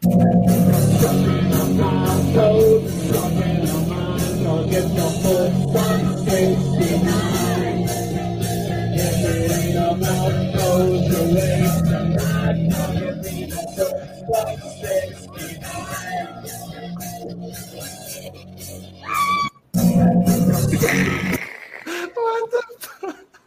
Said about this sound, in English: we're uh we're gonna segue to another song. All right, this is another one here.